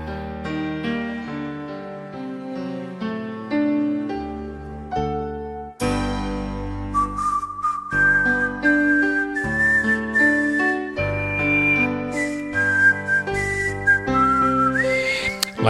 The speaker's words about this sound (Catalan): Hem trobat definitivament aquesta Marsellers en català que Josep Anselm Clavé, l'home dels cors de Clavé, mm -hmm. va, fer la va adaptar de l'original francès. Sona així.